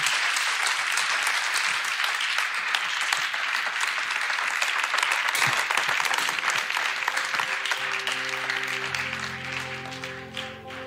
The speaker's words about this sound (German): Ähm, ich lasse uns hier noch mit einem großen Applaus am Ende verabschieden.